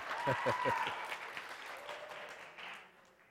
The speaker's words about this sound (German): Schaut mal, ein Applaus für die Mitpredigerin.